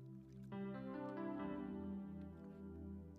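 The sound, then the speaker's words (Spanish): Water being poured into a glass or bottle for drinking, a steady gurgling stream with a resonant ringing tone, running continuously for about three seconds with no talking. “Déjame otro poquito agua, se me está secando la garganta.”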